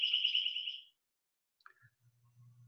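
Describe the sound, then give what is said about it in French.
A bird-song clock chimes to mark 7 p.m. with a single high, clear whistled note lasting under a second, then a brief faint chirp, followed by near silence with a low hum. “J'attends que le, petit oiseau qui indique les 19h ait fini de, chanter.”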